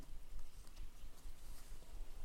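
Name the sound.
horse hooves clip-clopping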